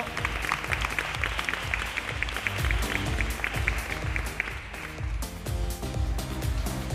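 A crowd applauds steadily and loudly for several seconds as a performer goes onto the stage, dense clapping, with some music playing underneath.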